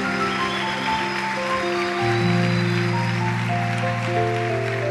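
A large crowd claps steadily in strong applause for God, a dense wash of applause that swells louder partway through, with sustained keyboard chords ringing underneath.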